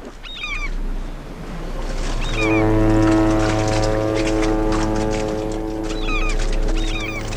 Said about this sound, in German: Ein riesiges Containerschiff zieht an uns vorbei. Alle sieben Minuten fährt eines raus oder rein in den Hafen von Rotterdam.